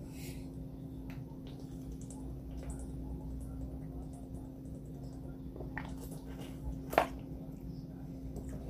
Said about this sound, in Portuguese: Só mais um instante aqui, pessoal, que está ouvindo. Vou tomar mais um, um gole de água.